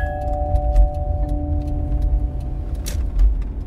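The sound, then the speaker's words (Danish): An old station wagon driving on a motorway, heard from the back seat, with a steady low engine and road rumble, a faint humming whine on top, and light intermittent rattles and ticks throughout. “Line Lotte sad på bagsædet af sin mosters gamle stationcar.”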